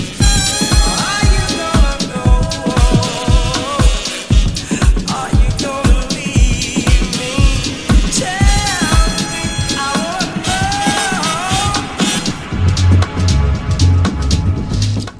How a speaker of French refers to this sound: on évolue dans une ambiance épurée, mélodique, presque sensuelle, comme d'ailleurs sur ce titre …